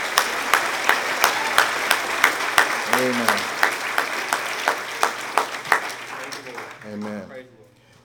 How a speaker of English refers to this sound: And your clap was not as loud as I gave in the Ritz Carlton. Can we do that again?